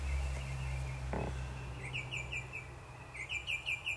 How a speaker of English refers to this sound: You hear my songbirds?